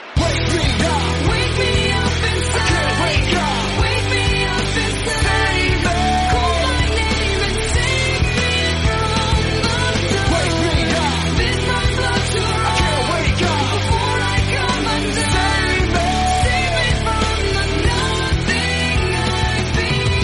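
A loud rock song plays steadily throughout, a dense wall of driving drums, distorted guitars and a strained vocal with no pauses, and nobody talks over it.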